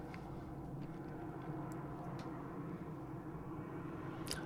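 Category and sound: vehicle, airplane flying overhead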